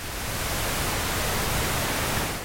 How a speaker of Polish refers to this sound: Pinknoise. Szum różowy.